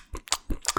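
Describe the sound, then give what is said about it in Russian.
Loud, open-mouthed chewing: a quick series of about five wet, smacking lip and mouth sounds in a steady rhythm, with no talking. “Особенно, если ты чавкаешь, да.”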